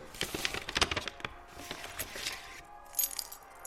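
keys jangling

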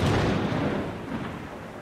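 thunder

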